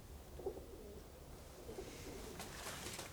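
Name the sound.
pigeons cooing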